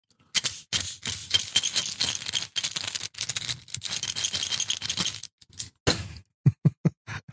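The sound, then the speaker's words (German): A tin of Ipalat throat lozenges is shaken in several loud, irregular bursts of rattling, then finishes with a few sharp, separate clacks, and no one speaks. “Normalerweise die Dose und das, das Rascheln kennt jeder, der, äh, der mit Sprache zu tun hat.”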